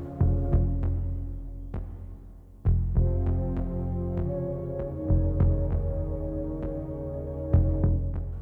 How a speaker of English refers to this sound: While Morricone's score is appropriately eerie and threatening, it is also primarily orchestral, with only some synth pulses uh, that feel akin to the usual John Carpenter sonic vibe.